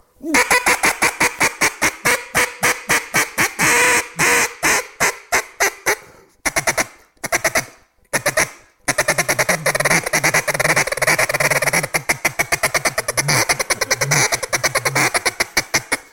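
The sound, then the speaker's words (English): A duck call blown hard, pouring out a fast, loud run of raspy quacks with a couple of brief breaks midway, then a dense, continuous stream of honking notes. “when they get the call, a good duck call when you blow it, when you grab and you rip into it, you're going to feel pressure.”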